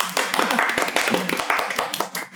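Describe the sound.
A small group claps together to welcome a guest: a quick, uneven flurry of sharp hand claps lasting a couple of seconds at a steady, moderate loudness, with faint voices mixed in.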